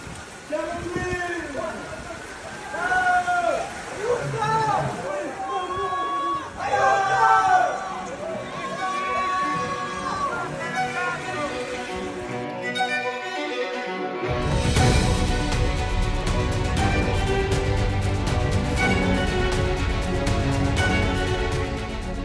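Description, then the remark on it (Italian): Urgent shouts, cries for help and raised voices of rescuers overlap amid commotion during the 2023 flood in Romagna, Italy, with landslides, then a loud, steady roar of rushing floodwater takes over and fills the rest of the scene. “i suoni della tragedia, le frane, l'acqua che scroscia, le grida d'aiuto, i soccorsi.”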